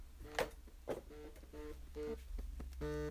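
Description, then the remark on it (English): A wife's work phone rings with an electronic ringtone: a quick series of short, bright tonal beeps repeating in a steady rhythm, moderately loud and heard alone without anyone talking. “oh shit, it's my fucking okay, it's it's my wife's work phone.”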